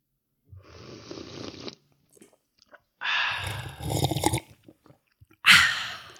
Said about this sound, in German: Willkommen beim neuen Jahr ASMR-Podcast Kaffee schlürfen. ich finde ja, das könnten wir bei jedem Mal machen. Ja, habe ich nichts gegen. Finde ich gut. Was hast du für einen Kaffee? Äh, plain, schwarz. Plain. Ja, ich habe Cappuccino.